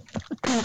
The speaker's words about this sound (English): bless you, sir. Um, Sorry, tried to mute that. Oh no, didn't get there. he has sneezed into the Matrix. Um, yeah, that's what I did.